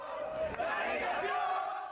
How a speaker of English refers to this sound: There were smiles all around for Argentina soccer fans as they jumped, danced, and shouted outside of the Lusail Stadium in Qatar following Argentina's third World Cup win.